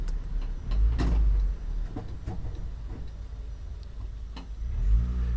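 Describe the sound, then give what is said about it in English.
A car engine drones low and steady as it climbs a narrow spiral ramp to the fourth or fifth level of a 1970s building's parking garage in central Mombasa, Kenya, swelling as it revs near the start and again at the end, with scattered clicks and knocks echoing around the garage. “Et le gardien du car park vient de m'expédier au quatrième ou cinquième niveau, obligeant à emprunter une rampe à colimaçon étroite où il est impossible de croiser un autre engin roulant.”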